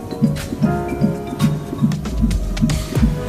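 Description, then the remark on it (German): A fetal heartbeat on an ultrasound monitor, a fast, steady run of about eight soft whooshing thumps over a hissy Doppler background, with no one speaking. “Das ist der Herzschlag Ihres Babys.”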